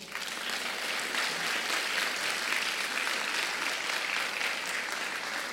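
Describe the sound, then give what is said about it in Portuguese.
A large crowd claps steadily and loudly, dense overlapping applause sustained at an even level without pause for several seconds, applauding God at the end of a prayer. “Você pode aplaudi-lo?”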